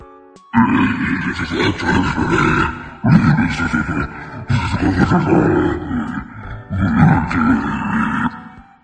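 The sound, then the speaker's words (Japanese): A voice run through a monster voice-changer effect lets out four long, harsh death growls, deep and roaring like a beast, each lasting about two seconds with short pauses between. “やっぱ私が好きなのはモンスターですね。ふふ。モンスターでちょっとデスボイス出してみましょうか。”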